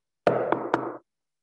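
Three firm knocks on a door in quick, slightly uneven succession, fairly loud, each with a short hollow resonance before the sound stops. No voices.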